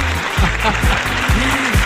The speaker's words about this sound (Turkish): Bir alkış daha gider ayak.